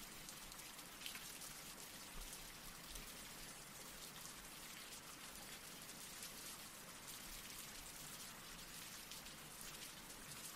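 Steady rain falls continuously, a dense hiss of drops pattering on surfaces, even and unbroken throughout with no voices, soft and enveloping.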